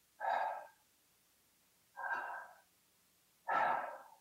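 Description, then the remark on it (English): Three slow, deliberate exhaled breaths, evenly spaced about a second and a half apart, each a soft breathy rush that swells and fades, clear with no talking. “So if you inhale and then exhale.”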